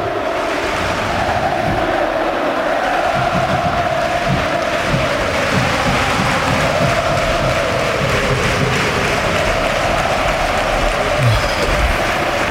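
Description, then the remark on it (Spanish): A huge football stadium crowd raises scarves in the air and roars and chants in unison, a dense, steady wall of voices that stays loud and unbroken throughout, while the Sevilla players catch their breath. No one speaks over it. “Y ahora bufandas al cielo, al aire. Mientras los jugadores del Sevilla van tomando un poquito de oxígeno. Que hable el sonido, Manolo, porque hace es espectacular.”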